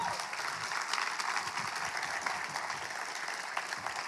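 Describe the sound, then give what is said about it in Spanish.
Steady applause from an audience, a dense wash of many hands clapping continuously, with no individual voices standing out. “Uy, no, pero si esa emoción es para el Señor, dale un aplauso.”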